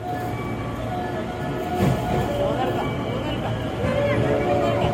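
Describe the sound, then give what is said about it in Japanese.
A train rolls into a station platform in Osaka with a steady rumble and faint tonal squealing, while a crowd murmurs in the background. The platform has rope-style gates that are lifted up when the train arrives. “はい電車入ってきました”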